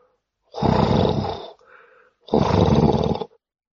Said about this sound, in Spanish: El Dracus empezó a gruñir, produciendo un ruido grave y profundo.